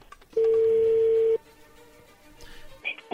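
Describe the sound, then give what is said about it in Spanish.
A loud, steady telephone touch-tone beep holds for about a second as a phone number is dialed, then gives way to faint line noise and a brief, higher electronic blip near the end. “Bueno, vamos a ver qué pasa. Ahí se está marcando, ¿ok?”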